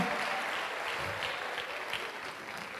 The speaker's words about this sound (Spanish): Dele un aplauso al Señor y tome asiento, querido hermano.